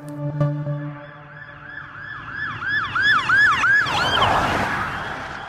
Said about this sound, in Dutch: Dan gaan we naar de hoofdstad, naar Brussel. Want sirenes van ambulances daar, mhm. die gaan minder luid klinken vanaf 2025. Ja, en niet alleen ambulances, maar ook die van eh, politie en brandweerwagens.